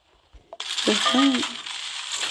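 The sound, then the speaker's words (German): A bright, sparkly chime bursts in and shimmers for about two seconds, with a short rising tonal flourish near the start, like a game reward jingle with jangling coins, from a mobile game on a phone as a box is opened and 100 coins are awarded. “Und ich öffne eine ähm, Box und ich habe 100 Münzen geschenkt.”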